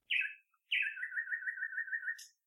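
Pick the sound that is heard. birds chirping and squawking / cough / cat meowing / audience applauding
birds chirping and squawking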